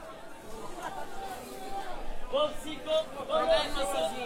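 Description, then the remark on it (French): Busy outdoor market hubbub with overlapping chatter from a crowd, and an apple and mango vendor's raised, sing-song calls cutting through in short repeated bursts near the end. “Et là, ce que vous entendez juste derrière moi, c'est une ambiance de marché. C'est un vendeur de pommes et de mangues qui est en train de crier.”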